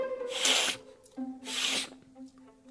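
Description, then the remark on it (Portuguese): Two congested, wet sniffles through a blocked, runny nose of someone with the flu, about a second apart, moderately loud over a faint humming tonal background. “Vivia espirrando para todo canto o nariz sempre entupido ou escorrendo.”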